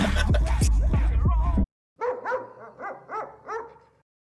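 Dogs bark in loud, repeated bursts, first a dense volley, then after a brief pause a series of about six sharper, evenly spaced barks.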